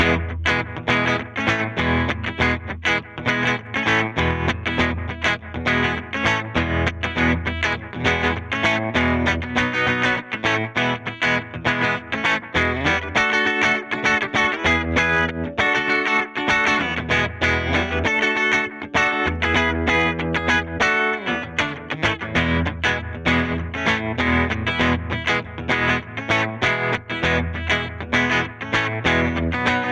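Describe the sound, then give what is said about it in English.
An electric guitar runs through an Analog Man ARDX20 and an Effectrode Delta Trem tremolo pedal into a Headstrong Little King tube reverb amp (Black Panel era Princeton style, 12-inch speaker) with reverb off, its chords pulsing in a steady rhythmic throb. Loud and continuous, with no talking. “I'm going to run that into the Analog Man ARDX20 again and into the Delta Trem.”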